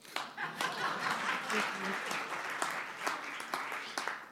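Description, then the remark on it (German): Steady audience applause fills the whole stretch, a dense wash of many hands clapping with a few sharper claps standing out, and a hint of laughter mixed in. “Ja, das wäre der Moment gewesen, wo du hättest sagen können, Applaus.”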